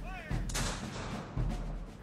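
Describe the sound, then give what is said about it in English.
Two heavy cannon booms, fired as a farewell at a president's funeral in Indianapolis, the second about a second after the first, each a loud low blast that rolls on into a rumbling, noisy tail. “I could not feel convinced of his death until I gazed upon his remains, she said, and heard the last roll of the muffled drum and the farewell boom of the cannon.”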